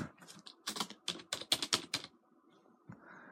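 A quick burst of typing on a computer keyboard while searching for a song title, roughly a dozen crisp key clacks in an uneven rhythm, then a brief quiet stretch with faint background noise.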